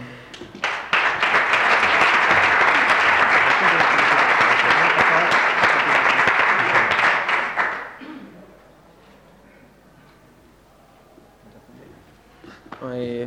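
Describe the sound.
A crowd bursts into loud, dense applause that holds steady for about seven seconds, then fades out, leaving a quiet stretch before a voice begins to speak. The applause honours a football club's work after two consecutive promotions, as an award is collected.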